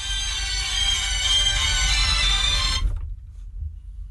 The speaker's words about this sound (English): Oh, somebody left a phone in the studio.